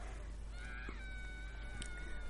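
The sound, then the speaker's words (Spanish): A girl, the film character Lyanna Mormont, screams in a long, high-pitched, sustained cry as a giant lifts her, rising out of a dense, rumbling background din and staying loud for about two seconds. “Mira, aquí está que está chillando es Liana Mormon, que es una valiente.”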